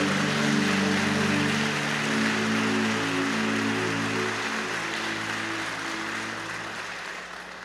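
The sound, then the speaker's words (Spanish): A church audience applauding steadily for the Lord Jesus, a dense and continuous patter of many hands, with sustained low keyboard chords underneath that fade as the clapping gradually softens toward the end. “Dele fuerte ese aplauso al Señor Jesús.”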